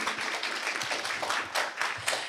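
Steady audience applause for the first speaker at an event, a dense wash of many hands clapping at a moderate level, with a few sharper individual claps standing out as it continues without any talking.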